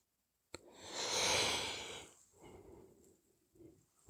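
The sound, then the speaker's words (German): A person relaxing takes a deep, airy breath that rushes in loudly after a moment of silence, then trails off into a softer, low, drawn-out exhale with a faint yawning quality. “Ja, und da ist ein Atemzug, also irgendwie ein Gähnen und ein Entspannen.”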